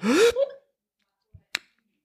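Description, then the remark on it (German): A person imitates a sharp inhale, a short voiced gasp that rises in pitch. It is fairly loud, followed by silence and a couple of faint clicks. “So, setz dich mal hin und jetzt mal einatmen und auf ins Abend.”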